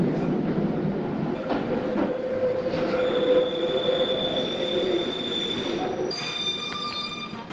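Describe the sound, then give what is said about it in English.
A London Underground Northern Line train rumbles through a station at Euston, its wheels squealing with high, sustained metallic tones over a steady low roar, loud throughout. “Please mind the gap between the train and the platform.”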